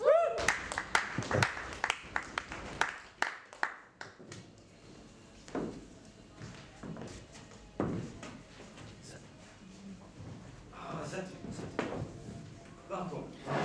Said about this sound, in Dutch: En daar het applaus